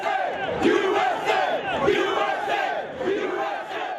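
crowd chanting

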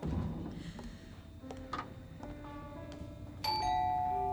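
doorbell ringing

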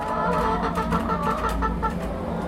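chickens clucking

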